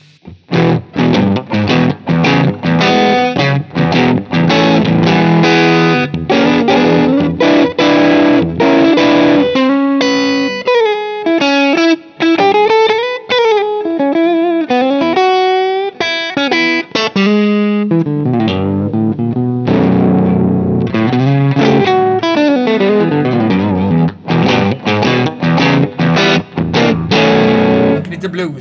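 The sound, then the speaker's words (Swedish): An electric guitar plays through a Honeybee fuzz pedal into an amplifier, thick and buzzy with a lo-fi edge, mixing chopped chords with sliding, bending notes at steady loudness for the whole stretch. “fussig ja, och lo fi sådär.”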